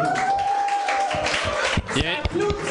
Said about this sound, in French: Il y, a, un gars qui applaudit solide là-bas. Mais, ça applaudit vraiment moins que je m'attendais.